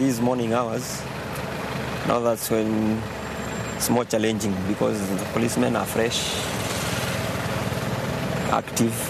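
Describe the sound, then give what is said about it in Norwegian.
A steady rumble of idling cars and buses standing bumper to bumper in a traffic jam on the E18, a road with no bus lane, fills the background, with voices talking over the constant engine drone. “Bilene og bussene står tett i tett. E18 i tredje potens og uten kollektivfelt.”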